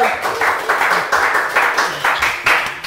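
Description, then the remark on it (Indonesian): An audience gives another round of applause for a performer, steadily for about three seconds, the claps dense and fairly loud with a regular rippling pulse, and no clear voices over it. “Tepuk tangan sekali lagi”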